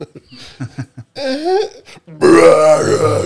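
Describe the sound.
In a TikTok clip of two girls drinking water while sitting in a car, short vocal groans and strained sounds build up, then a long, loud, rough burp erupts for over a second, deep and gravelly like a monster's growl.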